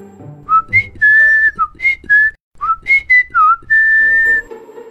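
A freight truck driver whistles a cheerful, bouncy tune alone while driving on an empty mountain road in fine weather, high clear notes hopping and sliding between pitches, with long held tones in two lively phrases split by a brief pause.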